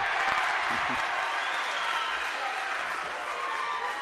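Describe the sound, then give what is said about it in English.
A crowd at a Kearney Catholic basketball game erupts in loud, steady applause and cheering after a senior makes a technical free throw to make it 75 to 34, a dense continuous roar that holds for several seconds with a brief voice near the start. “makes it 75 to 34 as the crowd goes crazy for the senior.”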